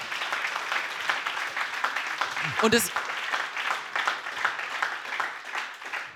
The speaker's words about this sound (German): Mein Mikro klingt heute so genial, deswegen mal dick Applaus für dich,